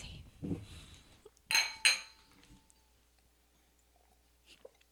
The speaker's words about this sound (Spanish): Vamos a hacer un chinchín